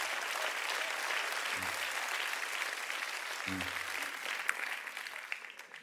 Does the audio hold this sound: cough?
no